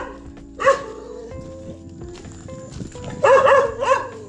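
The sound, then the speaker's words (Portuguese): A dog barks in two bursts, a short sharp bark followed later by a louder cluster of rapid barks, over a low steady background hum. “Olha o cachorro.”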